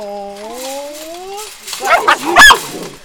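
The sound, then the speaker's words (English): A drawn-out, rising puppy whine gives way to a quick cluster of sharp yips and barks from puppies at a fence, one starting to climb it, loudest near the end before fading out. “Rotten little things. And this one's starting to climb up the fence.”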